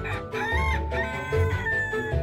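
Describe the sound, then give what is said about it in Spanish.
A rooster crows loudly at dawn, a long, strained cock-a-doodle-doo that fills the whole moment, with some low farmyard rumble underneath. “A la mañana siguiente, como todos los días, el gallo cantó al amanecer.”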